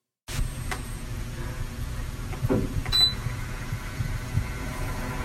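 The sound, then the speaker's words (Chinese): A dehumidifier running in a bedroom gives a steady low hum and rumble, a constant mechanical drone with faint whirring texture, punctuated by a brief high-pitched click or squeak partway through. “好，它它其实是我房间除湿机的运转声音。”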